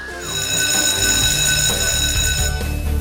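school bell ringing

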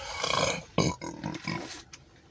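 burp

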